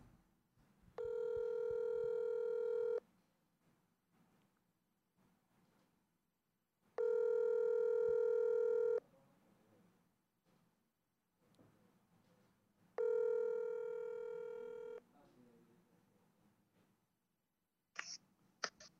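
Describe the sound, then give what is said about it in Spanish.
An outgoing phone call rings through: three long, loud electronic tones, each about two seconds, spaced by steady pauses, followed by a brief click as the line connects. “Vamos a ponerla por la llamada, porque realmente estamos totalmente cruzados.”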